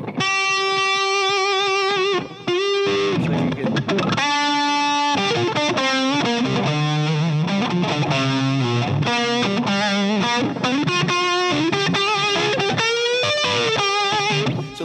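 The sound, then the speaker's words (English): A distorted electric guitar plays a lead line of sustained notes and quick runs, its held notes wavering with a steady, fast vibrato. The guitar plays loud and alone, with no voices. “on guitar, everyone can. Everyone can grab. But I notice it's with vibrato.”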